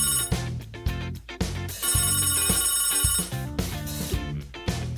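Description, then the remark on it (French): A telephone in a hair salon rings loudly in repeated bursts of bright, bell-like tones over a steady tonal backing, with no voices heard. “Et il manque plus que le téléphone sonne pour savoir qui va venir aujourd'hui.”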